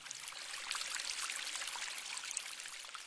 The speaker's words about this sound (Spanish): había una vez un monasterio zen en lo más alto de una colina, rodeado de frondosos árboles y una pequeña cascada de agua cristalina que fluía con delicadeza, ofreciendo un espejo a la mente misma.